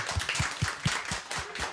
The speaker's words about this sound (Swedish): Återigen en stor applåd.